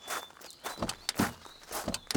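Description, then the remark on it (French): Quick, hurried footsteps of two police officers rushing back to their car hit a hard surface in a steady rhythm, several steps with no talking. “Les deux policiers regagnent précipitamment leur voiture.”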